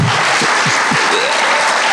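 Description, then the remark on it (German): An audience applauds steadily, a dense, loud wash of many hands clapping with no one speaking over it, continuing unbroken for the whole couple of seconds, for a guest from the aid organization Hilfsaktion Märtyrerkirche at a talk about persecuted Christians. “Und dann ist es auch irgendwie schwer, einen Applaus zu geben”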